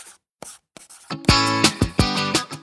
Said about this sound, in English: I'm busy writing a letter. A letter? Snail mail?